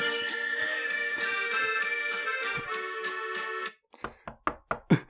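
A sustained, droning tonal sound stops abruptly, followed by a quick series of about six sharp, loud knocks in a rapid, uneven rhythm.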